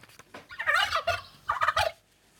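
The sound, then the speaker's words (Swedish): A turkey gobbles in two rapid, warbling bursts, loud, with a short pause between them and no talking. “kalkon, kan det vara så?”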